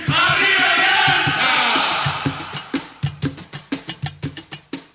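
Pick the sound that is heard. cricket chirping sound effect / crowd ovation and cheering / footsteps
crowd ovation and cheering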